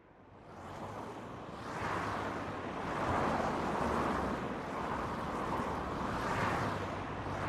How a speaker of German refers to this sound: An der Autobahn A7 war Hammelburg in Unterfranken. Tag und Nacht rollt der Verkehr. Nie verstummt hier der Lärm von täglich rund 40.000 Fahrzeugen.